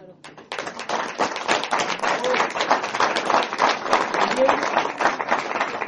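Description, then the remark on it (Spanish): Sustained audience applause, a dense wash of many hands clapping that starts abruptly and holds steady and loud for several seconds, with scattered voices cheering underneath. “A mí, si hay alguien que me sorprendió el día de ayer, y quiero que le demos un muy, muy, muy fuerte aplauso,”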